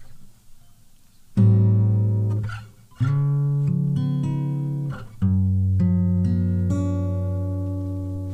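A short guitar jingle: three strummed chords, each struck firmly and left to ring out, with brief soft noise before the first chord and no talking.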